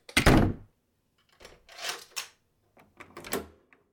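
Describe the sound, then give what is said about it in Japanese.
A home's front door shuts with a heavy thud as someone arrives home, followed by a few seconds of softer metallic clicks and rattles as the lock is turned. No voices are heard. “ただいまちゃんと鍵かけてよ”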